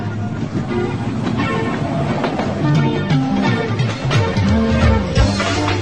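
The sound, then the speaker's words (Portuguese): A train pulling away, with a steady mechanical rumble, clanking bursts and squealing tones rising and falling over it, loud throughout, with no voices. “Então, embarque nesse trem que ele vai sair agora.”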